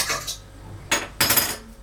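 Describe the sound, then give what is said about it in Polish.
A spoon scrapes and swishes through tomato sauce in a pan, mixing in fresh tomatoes so they are not left on top, three rough strokes with short pauses between them. No one speaks. “Oczywiście przemieszamy, aby te pomidorki nie były na wierzchu.”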